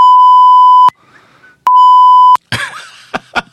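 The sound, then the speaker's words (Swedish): Two loud, steady censor bleeps, each under a second long, covering a name being spoken, separated by a short quiet gap, followed by a brief burst of someone speaking. “I'm, I'm gonna bleep it every time you say it”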